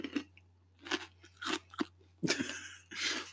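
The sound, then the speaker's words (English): Crunchy chewing of a mouthful of six or seven edible crickets eaten in one go, a series of irregular crisp bites and crackles over about three seconds, fairly loud, with a steady low hum underneath and no talking. “I wouldn't know that was a cricket.”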